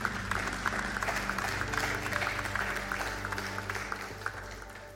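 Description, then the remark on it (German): Sustained applause from an audience in a hall welcoming a speaker to a talk about the Bible, a dense, steady patter of many hands clapping at a fairly even loudness throughout, with a low hum underneath and no voices. “Bitte im Saal begrüßt ihn doch mit einem warmen Applaus.”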